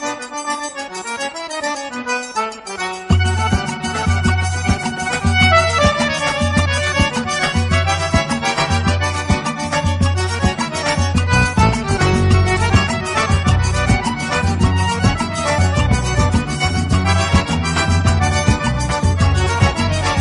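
A Brazilian popular song recording plays loud, opening with a brief melodic intro before a full band kicks in with a steady, driving bass rhythm. No one speaks over it.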